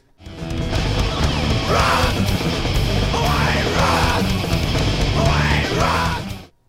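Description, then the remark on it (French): A loud, dense burst of distorted punk rock with raw screamed vocals cutting through in several harsh shouts over driving, wall-like guitars and drums, playing steadily for a few seconds before cutting off. “Alors, on écoute l'extrait où je crie et avec toi.”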